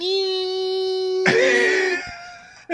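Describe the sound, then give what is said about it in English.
A single voice imitates the engine of a car being floored during a race, holding a steady, high whine for about two seconds before breaking into a rough, raspy burst that trails off. Fairly loud. “he put his foot in the joint, and that joint was like screaming. Like he was flooring that joint, and then all you hear was”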